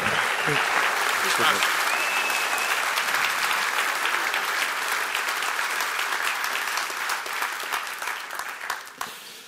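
Loud, sustained applause from a large audience at a men's day event (Männertag) for a man being introduced, a dense wash of clapping that holds steady for several seconds and then thins into scattered claps near the end.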